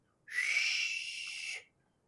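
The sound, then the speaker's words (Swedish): A person makes a single breathy, hissing whoosh with their voice, mimicking a gust of wind blowing high up on a tall ledge. It is steady and airy, and lasts just over a second before stopping abruptly. “Och det blåser där uppe och man mm. hör hur det liksom”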